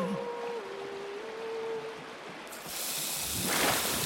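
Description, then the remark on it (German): A steaming hiss runs throughout, first soft under a thin whistling tone, then bursting halfway into a bright, loud rush of hissing steam that swells toward the end. No one speaks. “Der Teufel wurde so heiß vor Liebe, dass er anfing zu dampfen.”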